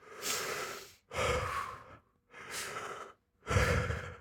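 two deep breaths

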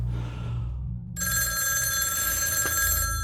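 landline telephone ringing

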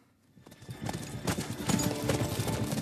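horse

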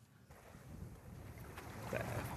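strong wind

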